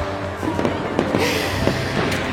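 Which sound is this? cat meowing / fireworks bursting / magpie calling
fireworks bursting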